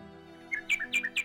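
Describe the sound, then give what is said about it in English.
A nightingale sings a quick run of bright, high chirps, five or six short notes in an uneven rhythm, heard alone over a faint low hum after a brief quiet moment. “Here indeed is the true lover said the nightingale. What I sing of he suffers.”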